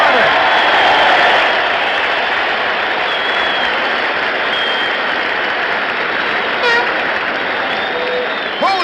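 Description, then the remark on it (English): A large baseball stadium crowd gives a sustained standing ovation for Stan Musial as he leaves the field for a picture after breaking the record held by Honus Wagner, dense applause and cheering roaring steadily for the whole stretch with a few whistles rising above the din. “Listen to the standing ovation as he leaves the field for a picture.”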